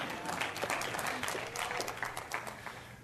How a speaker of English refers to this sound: You can clap.